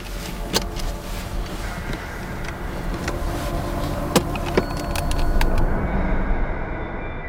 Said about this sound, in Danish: Vi sætter os ind i bilen og glider langsomt ud fra parkeringspladsen.